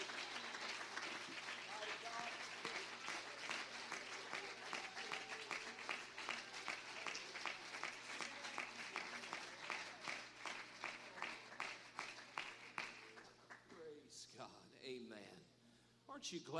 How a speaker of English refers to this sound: Take your liberty in the Holy Ghost. Amen. Clap your hands to the Lord tonight, if you would.